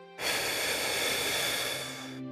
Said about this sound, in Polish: Zaczniemy od 10 głębokich wdechów przez nos i 10 pełnych, szybkich wydechów ustami. Wydech będzie dwa razy szybszy niż wdech.